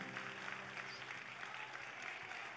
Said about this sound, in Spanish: O oh, si usted cree esa palabra, denle un aplauso a Dios, Dios mío.